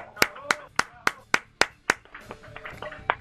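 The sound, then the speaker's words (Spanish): Steady, rhythmic hand claps from a program audience ring out crisp, about seven in a row, then loosen into lighter, scattered clapping with voices murmuring underneath. “Un aplauso para el banco.”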